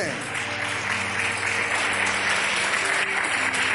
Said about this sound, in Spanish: un aplauso